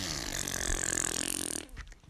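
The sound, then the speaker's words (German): A long, raspy mouth-made fart noise, a loud buzzing blow of about a second and a half that cuts off abruptly, with no talking over it. “Er hat das mit seinem Mund gemacht.”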